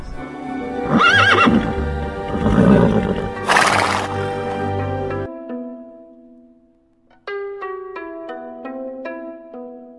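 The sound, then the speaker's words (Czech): A horse, the white horse of Saint Nicholas, whinnies loudly, with shaky rising-and-falling neighs over clip-clopping hooves, then the sound gives way to a held musical tone and a short run of melodic notes. “Tamní děti staví ke krbu dřevák tak, aby jim jej naplnil dárky a stejně jako se to dělalo u Odina, dávají před dveře seno a mrkev pro jeho bílého koně.”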